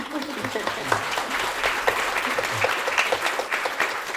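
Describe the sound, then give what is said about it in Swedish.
An audience claps steadily throughout for an author whose drawn figures became many books, a dense patter of many hands with sharp individual claps standing out, holding an even loudness for the whole stretch. “Ja, du kan klappa för det nu.”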